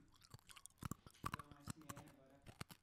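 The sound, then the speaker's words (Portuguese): A blue hard mint candy being crunched between teeth, with a quick, irregular series of sharp cracks and crackles at moderate loudness and no voices. “agora eu cheguei na parte que eu quebro o House.”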